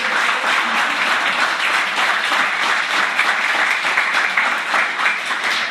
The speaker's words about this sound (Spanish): Hay un fuerte aplauso, que Dios.